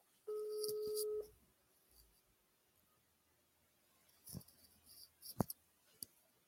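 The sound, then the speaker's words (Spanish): A steady electronic telephone tone sounds for about a second, then scattered clicks and taps follow, like buttons being pressed on a phone while dialing a phone call to a doctor. “Te voy a hablar por teléfono.”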